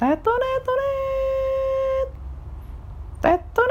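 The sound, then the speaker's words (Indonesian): A voice imitates a trumpet fanfare: a few quick, bright notes lead into one long, loud held tone. After a short quiet gap, two more brief sung blasts follow. “Tiba-tiba di luar rumah ada suara trompet.”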